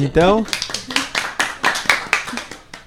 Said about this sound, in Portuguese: Então, uma, uma, uma salva de palmas,